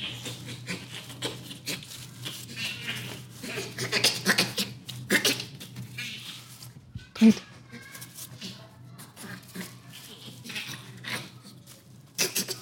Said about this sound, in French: Ce que vous entendez là, c'est un rire de chimpanzé. Et c'est assez différent d'un rire humain.